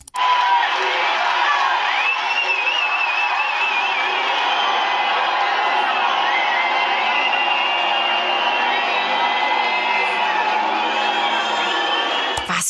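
Fans at a pop concert boo after the performers leave the stage with no encore. A dense, steady roar of many voices, with wavering shouts and whistles rising above it, stays loud and unbroken for about twelve seconds.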